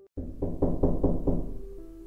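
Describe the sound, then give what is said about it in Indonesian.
A quick series of about five or six firm knocks on the door of a zinc-sheet toilet, evenly spaced, with a dull, heavy thud to each rap and no voices. “Nah di situ saya kayak ke WC dulu, beberapa menit kemudian kok ada ngetok-ngetok, itu kan?”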